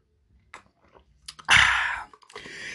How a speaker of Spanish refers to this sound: Ese sonido lo hice nada más para que usted escuche que yo estoy tomando agua.